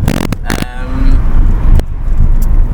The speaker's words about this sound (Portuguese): Um, ah, num formato completamente diferente, quase nunca tinha feito, estar a gravar o podcast e a andar de carro ao mesmo tempo